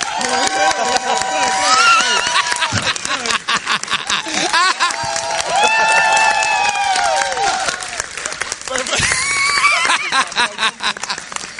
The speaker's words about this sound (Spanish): caballeros, esto es Cultura Secuencial en vivo desde el Puerto Rico Comic ¡Fuerte aplauso!